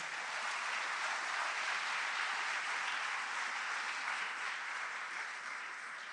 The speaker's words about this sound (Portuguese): Você pode aplaudir o Senhor por isso nessa manhã?